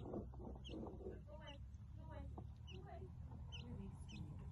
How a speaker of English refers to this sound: They think we have food for them. Some sort of uh, quill, I think that is. Something like that. Interesting bird.